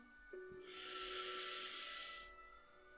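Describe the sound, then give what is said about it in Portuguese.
A single long, deep inhalation during a guided breathing exercise, a steady airy rush drawn in through the nose or mouth for nearly two seconds, fairly loud, with no talking. “Última vez. Inspira.”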